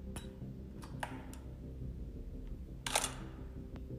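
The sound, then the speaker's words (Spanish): A series of sharp mechanical clicks as a bedroom door is unlocked at night, a few quick ticks followed by a louder latch-like snap near the end, crisp over a low steady hum with no voices. “Media hora después, escuché el sonido de la puerta desbloqueándose.”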